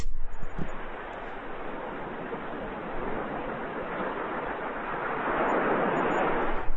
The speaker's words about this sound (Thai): ที่เดี๋ยวจะเปิดให้ฟังนิดนึงดีไหมอันนี้คือเป็นเสียงแบบพายเรือแคนูอะแล้วก็มีเสียงแบบโอเชียนเวฟ